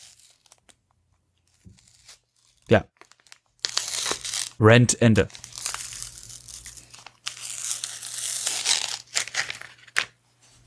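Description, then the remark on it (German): Crinkly food packaging is slowly torn open, a sustained rustling and crackling with a few louder tearing bursts, while people speak briefly over it. “ich so reiß langsam auf.”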